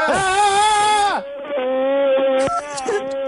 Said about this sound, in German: brüll du mal ganz laut jetzt bitte. Dann kann ich mich besser konzentrieren. Brüll mal ganz laut.